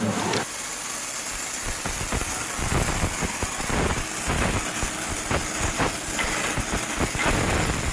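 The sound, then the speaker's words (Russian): Heat treatment of a drill bit's surface: a loud, steady industrial roar and hiss runs throughout, broken by irregular metallic clanks and knocks, with no one speaking. “Сейчас вы слышите, как идет термообработка поверхности бура.”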